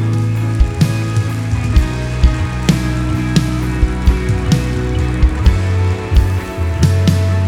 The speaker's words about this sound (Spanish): Den un aplauso a Él.